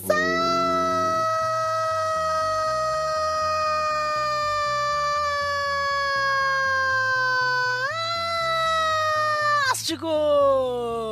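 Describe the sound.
A voice imitating an ambulance siren holds one long, loud wail for about ten seconds, its pitch sliding slowly downward, then jumping up, before breaking off near the end over a steady low beat.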